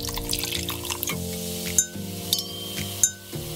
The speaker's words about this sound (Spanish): Con trago en mano y sonando copas, comenzamos.